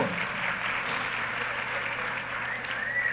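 Steady, dense applause from a crowd, a continuous bright patter of many hands clapping at an even level for a few seconds, with no talking over it.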